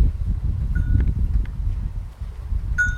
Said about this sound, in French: Il y a du vent.